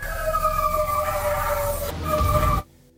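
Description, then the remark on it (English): Eerie, sustained whistles and wavering howls of unseen creatures, recorded with equipment further down a road by a forest, drift together over a low rumbling background, holding steady for a couple of seconds before cutting off abruptly into near silence. “But that is when the whistles and howls begin back up and they realize that these creatures have been following it the entire time they've been driving down away from that spot.”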